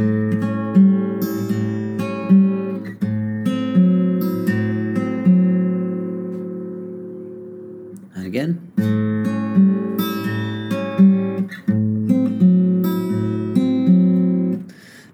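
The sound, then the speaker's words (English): Acoustic guitar played fingerstyle, a steady repeating pattern of plucked notes, thumb, second, first and third fingers on strings 5, 3, 4 and 1, ringing over sustained bass tones, clear, with a brief pause near the middle before the pattern resumes. No talking. “And then with our picking hand, we're going to do exactly the same pattern thumb, second finger, first finger, third finger.”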